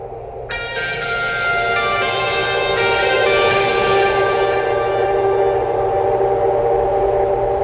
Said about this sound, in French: Vous connaissez …? Ils ont une chanson qui se nomme ….